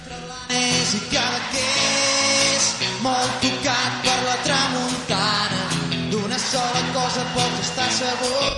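A Catalan pop song plays loudly and steadily, a sung melody carried over a full band with drums, guitars and bright cymbals, starting a moment after a brief quieter opening.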